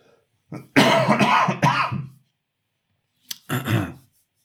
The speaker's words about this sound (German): Es tut mir leid, ich habe es geschafft, eine halbe Stunde zu unterdrücken. Jetzt kommt der fiese, trockene Husten doch noch das durch.